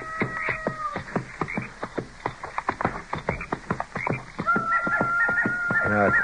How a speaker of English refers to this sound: sounds to me like most of those coyotes are up around those river bluffs there by the bend.